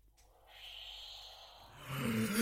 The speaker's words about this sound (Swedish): Ett riktigt lasersvärd! Ja, det är ett riktigt lasersvärd.